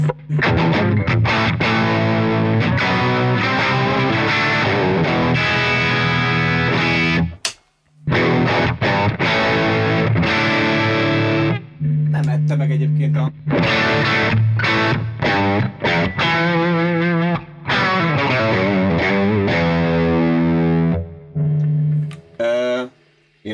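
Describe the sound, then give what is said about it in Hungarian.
A distorted electric guitar played through an amp with a Hall of Fame reverb pedal switched off, dry with no reverb tail, strumming chords and picking riffs loudly with a brief pause partway through. “Megnézem gyorsan még az 5 forintos Hall of Fame reverb nélkül, hogy”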